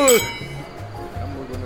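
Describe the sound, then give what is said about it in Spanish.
Glasses clink together once, sharp and bright, with a short ringing tail in a toast to the future at a dinner, followed by low murmuring voices. “Gracias. Salud por el futuro.”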